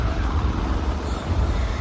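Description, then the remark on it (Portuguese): A heavy, loaded truck roars along the road at speed, its deep engine rumble and road noise loud and steady throughout with no pauses. “eu acho maneiro que esses caminhão corre por veículo pesado, né? corre muito, né, cara?”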